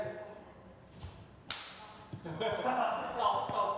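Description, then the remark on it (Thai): Sharp, wet slaps of roti dough being smacked between bare palms by a roti maker, about five irregular hits over a busy background murmur, fairly loud. “ตบโรตี ด้วยมือเปล่าด้วยมือเปล่า แล้วมือพี่แขกแบบว่าแบบมือเปล่าอ่ะ”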